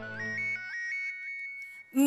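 A mobile phone ringtone plays a short, bright melodic tune of repeating electronic notes over a low hum, then a voice briefly starts at the end.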